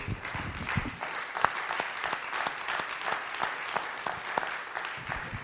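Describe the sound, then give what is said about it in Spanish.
An audience claps together in sustained, dense applause offered to God during a sermon, a steady wash of many hands lasting several seconds with sharp individual claps popping out, and a few murmuring voices underneath at the start. “Démosle un fuerte aplauso a nuestro Dios.”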